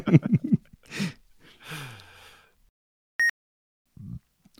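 A single gravelly, low-pitched burp that drops in pitch and trails off, preceded by a few short breathy vocal sounds and followed by a brief electronic beep.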